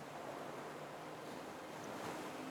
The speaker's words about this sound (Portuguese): Continue caminhando e perceba o som uma a uma, quebrando logo à sua frente, estão as mais belas ondas na imensidão do mar.